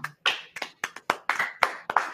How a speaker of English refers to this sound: I think it's the first time we've ever given somebody a round of applause.